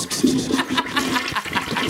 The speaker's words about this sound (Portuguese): Dá descarga!